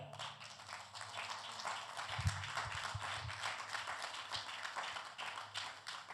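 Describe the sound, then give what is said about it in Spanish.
A crowd applauds God (the Eternal) steadily for several seconds, a dense, continuous wash of many hands clapping at once, fairly loud and even throughout with no voices standing out. “Alaba lo que vive, dar un aplauso al Eterno.”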